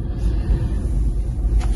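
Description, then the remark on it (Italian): Steady low-frequency rumble of a car's interior while driving, a constant deep road and engine drone filling the cabin with no voices. “Ma ed è quello che volevo dirvi, il motivo per cui sono in macchina.”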